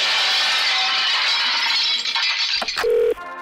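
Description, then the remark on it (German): Dishes of food clatter and rattle on a canteen treadmill in a dense, continuous din, then a few sharp crashes of shattering crockery ring out near the end, with a brief tonal beep among them. “Während unserer Fitnesswochen wird Ihr Fressen ab sofort auf dem Laufband ausgegeben. Sie hören es ja im Hintergrund.”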